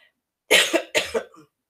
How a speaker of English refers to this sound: Excuse me, I don't know why I'm coughing.